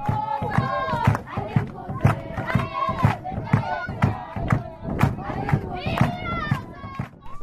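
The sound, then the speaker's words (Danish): A South African choir singing joyfully, many voices blending in lively, bright harmony over a steady, driving rhythmic pulse that keeps going throughout. “Og så er der også dem her, som synger som tak.”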